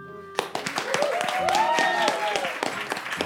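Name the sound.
applause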